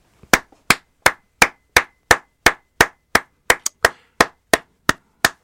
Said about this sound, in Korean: 자, 박수.